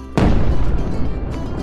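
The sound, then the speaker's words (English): A single loud firework bang with a sharp onset, followed by a dense rumbling, crackling tail that stays strong and slowly fades over about a second and a half. “Fireworks makers discovered that adding layers of organic salt and potassium perchlorate created a whistling sound, while white titanium powder created a louder bang.”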